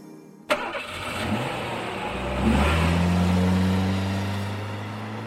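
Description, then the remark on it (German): A sports car engine fires up with a sharp start, then revs hard, its deep roar rising in pitch and holding loud for several seconds. “so in etwa klang das wahrscheinlich, als der tschechische Milliardär Radim Passer mit 470 10 Stundenkilometer über die Autobahn A2 donnerte”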